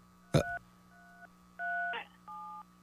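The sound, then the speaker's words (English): A caller presses buttons on a telephone keypad: four tones sound one after another at an uneven pace, each a steady electronic two-note beep, with a sharp click at the start and another partway through. “All right, you're pushing buttons.”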